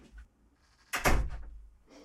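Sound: door being closed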